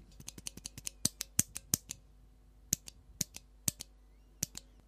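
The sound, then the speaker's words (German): A mechanical keyboard switch clacks sharply over and over: a quick burst of about a dozen presses, a short pause, then several more spaced-out clicks. No one speaks. “Das Einzige, was man machen kann, ist vielleicht das Spring Lubing. Ich werde mal schauen, ob ich das ob man das hier hört?”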